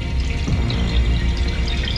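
Water runs steadily in urinals, heard over a phone line along with ambient noise, a continuous rushing and trickling wash with a low rumble underneath, fairly loud and even throughout with no voices.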